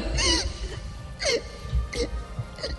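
A woman cries in four short, shaky whimpering sobs with breathy gasps between them, spaced roughly evenly with no talking.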